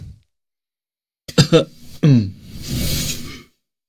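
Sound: throat clearing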